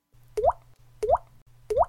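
Three raindrop plops, a rhythm Millie created from raindrop sounds, fall at an even, steady tempo, each a short watery bloop that bends upward in pitch, with a faint low hum continuing between the drops.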